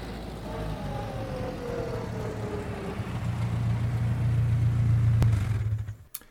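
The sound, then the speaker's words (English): A car engine rumbles as Tom Stevens and Helen Benson drive up to the boarding house in the early evening in a radio drama of The Day the Earth Stood Still, the low drone growing steadier and louder, then a click and the engine cuts off abruptly into near silence. “Tom Stevens and Helen Benson drive up to the boarding house after their picnic, quite unaware of the dark squad car parked at the curb a few feet ahead.”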